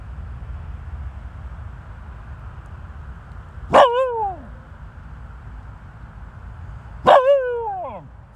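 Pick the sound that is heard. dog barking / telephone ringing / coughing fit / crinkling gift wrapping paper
dog barking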